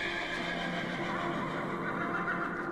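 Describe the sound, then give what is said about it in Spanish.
A horse neighs in a long, drawn-out whinny that fills the whole moment, loud, with a steady rough texture and no voices around it. “se cuenta que el dios nórdico Odín cabalgaba en su corcel volador de ocho patas y repartía regalos a niños buenos.”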